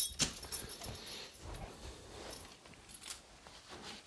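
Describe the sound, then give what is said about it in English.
A dog shuffles and moves about in Minneapolis in 2019, with soft scuffling, rustling and a brief jingle like collar tags near the start; quiet and continuous, with no one speaking. “Okay, hang on, dog. Hang on, doggy.”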